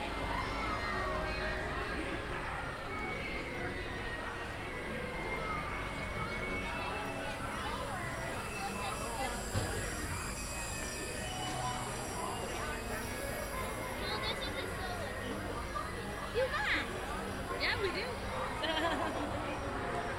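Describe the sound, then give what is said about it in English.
Heimlich's Choo Choo Train, a small theme park train ride in A Bug's Land, rumbles along steadily, its continuous rolling clatter mixed with a busy wash of crowd chatter and children's voices for the whole stretch. “We're getting ready to do again the most thrilling attraction here, Heimlich, Heimlich's Choo Choo Train.”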